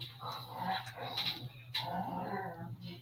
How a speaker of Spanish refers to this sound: Se, se están peleando tus perros, güey le están reclamando.